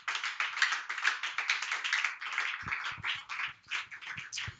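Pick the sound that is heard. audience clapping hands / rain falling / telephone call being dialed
audience clapping hands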